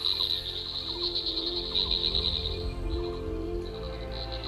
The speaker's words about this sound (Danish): En lille, uanselig frø, der hedder Afrixalus.